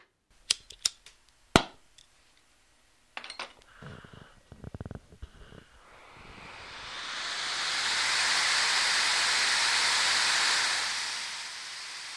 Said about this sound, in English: Not the same kind of torch angry villagers carry to storm a castle, or the kind Indiana Jones might carry through a temple. It's a glass blowing torch. If you've never seen a glass blowing torch, it's like this.